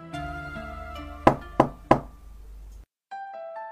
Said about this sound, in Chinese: 在屋子里玩游戏的小山羊听到敲门声